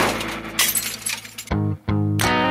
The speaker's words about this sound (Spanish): Hasta que choque la micro.